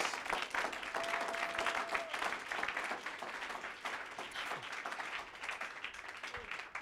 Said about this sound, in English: Or oh, give a clap offering to Jesus.